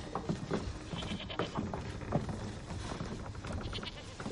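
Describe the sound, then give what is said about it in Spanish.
Several stabled goats bleat repeatedly in a room aboard a ship, their overlapping cries rising and falling over a steady, fairly loud background of shuffling animal noise. “Entran en una sala con cabras estabuladas y un hombre en el suelo.”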